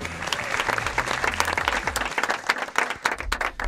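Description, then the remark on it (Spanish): Canned studio audience applause, a dense steady wash of many hands clapping at moderate loudness, with scattered sharper claps standing out and no talking over it. “Muchas gracias público, de verdad que estáis en el estudio, público de mentira que estáis grabados y que sigas aplauso para mi compañero”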